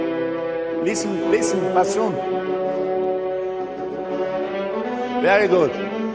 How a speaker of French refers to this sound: Maintenant, on rajoute les altos. Vous pouvez jouer un peu plus, mais ne vibrez pas, parce que ça ne se mélange pas avec le vibrato des bassons.